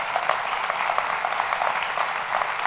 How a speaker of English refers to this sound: But listen, this is one of the easiest places to ever stand up for Jesus. Can you guys just give her a hand for what she's doing today?